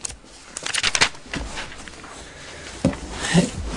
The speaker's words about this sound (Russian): И тут переворачиваем страницу.